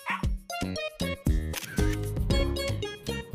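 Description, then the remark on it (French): Several crisp camera shutter clicks snap in quick succession, layered over bright, tonal video-game music that fills the short clip; no one speaks. The clicks come from Paparazzi, a photography game for Nintendo Switch in which the player takes photos of little dogs. “OK, un jeu de photographie.”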